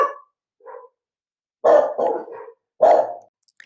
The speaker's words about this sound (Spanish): aquí van los perros. A ladrar los perros porque se estacionó un auto al frente de, mi casa.